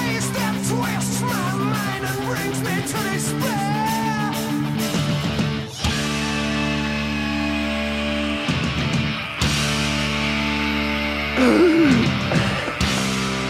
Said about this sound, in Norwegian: Det sykt lange skriket. Hvor ja. får den pusten fra? Ja, det, det, kan du spørre om. Hør på det her.